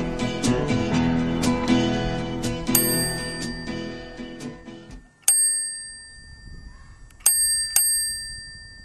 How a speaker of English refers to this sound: That little bell, a little bicycle bell, a, be- a beautiful, I refer to it as a beautiful black bicycle bell. Nice order of adjectives there. Uh, mounted so nicely uh, on my uh, walker